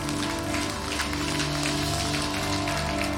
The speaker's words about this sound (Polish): Oddajmy Mu chwałę oklaskami, bo On jest tego godzien.